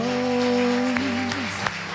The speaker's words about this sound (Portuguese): Então aplauda Jesus porque Ele merece.